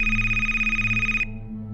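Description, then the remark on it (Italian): A telephone rings with a steady electronic tone over a low hum, clear before cutting off abruptly partway through, leaving only the background drone; the call is placed to an office phone. “Infatti, immaginando che sia al lavoro, lo chiamo direttamente in ufficio del quale ho il numero.”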